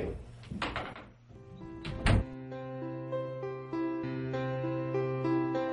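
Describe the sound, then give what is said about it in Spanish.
A door opens and shuts as a doctor is shown out, two solid thumps about a second and a half apart, followed by gentle sustained music swelling in the background. “Lo acompaño a la puerta.”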